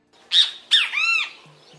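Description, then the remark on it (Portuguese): A great kiskadee calls its loud, three-note bem-te-vi: two sharp rising notes followed by a longer, rasping, harmonic-rich note, clear with no other sounds around it. “Em 2021, a internet brasileira passou semanas indo do som de um bem TV.”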